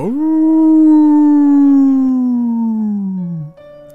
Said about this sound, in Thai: ไออีกคนทำเสียงหมาอีก แล้วมันก็ช่างทำได้เหมือนเหมือนกับว่า เราได้ยินเสียงหมาหอนจริง ๆ มันเยือกเย็นถึงกับขนลุก